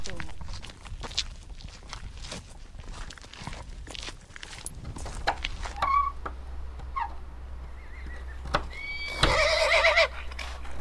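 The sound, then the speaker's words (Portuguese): Hooves clip-clop in an irregular walking rhythm, then a horse lets out a loud, shaky neigh near the end over a low steady hum. “é uma boa égua, dá para, para ensino e para obstáculos.”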